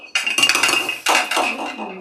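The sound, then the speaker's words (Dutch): A glass of water is handled and set down as someone takes a sip, with a series of light clinks and clatters, a thin ringing tone lingering beneath the knocks, with no talking. “Even een slokje water.”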